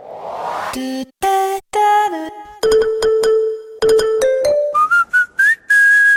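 Several short brand sonic logo jingles, including those of SNCF, Decathlon and McDonald's (McDo), play one after another, each a bright, tuneful few-note melody with chime-like and whistled tones, separated by brief pauses, loud and clear with no talking.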